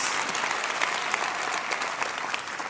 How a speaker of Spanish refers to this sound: Miren, qué buen grupo. Denles un buen aplauso.